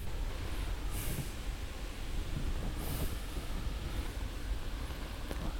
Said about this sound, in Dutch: klinkt wel prachtig, hè? Hoor het mooie hoge gras, de wind door het hoge gras gaan.